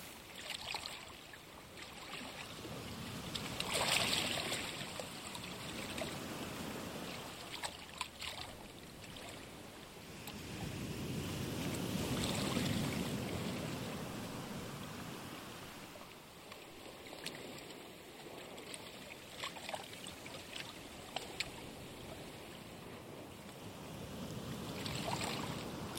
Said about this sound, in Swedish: Vattnet skvalpar mjukt mot dina fötter och underben.